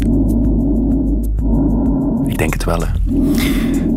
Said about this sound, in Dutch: Dit is het geluid van in onze longen als we ademhalen fascinerende plek, die longen.